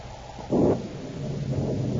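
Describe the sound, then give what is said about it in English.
Distant thunder from an approaching storm rumbles low and steady, swelling into a louder roll about half a second in before settling back into a deep, continuous growl. No voices are heard. “I'd like to get this job over with before that storm hits us.”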